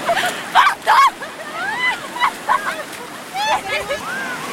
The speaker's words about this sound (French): enfilent des burkinis ou des longs t-shirts et sautent dans les vagues, se roulent dans les cuves et y resteront des heures.